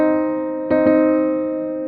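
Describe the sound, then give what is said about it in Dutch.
A C minor chord rings out on a piano, sustained and steady, with two quick re-strikes in the middle that briefly brighten the sound before it keeps holding. No one speaks. “En daarna dus mineur.”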